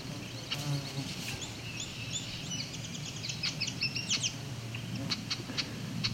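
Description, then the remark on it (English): A yellow warbler sings a quick, bright series of high sweet notes over a steady low outdoor rumble with other faint chirps around it. “There was the yellow warbler again.”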